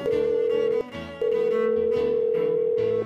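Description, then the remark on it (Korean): A steady electronic telephone tone hums at a constant pitch as a call is placed to Heart and Seoul Gospel Broadcasting to report a new address, briefly cutting out once before resuming, with a soft musical backdrop underneath and no voices. “지금 당장 전화해서 알려드려야겠어요.”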